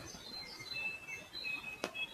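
Faint birds chirping in a forest on a very fine day, with thin high calls drifting over soft background noise and one brief sharp tick near the end. No one speaks.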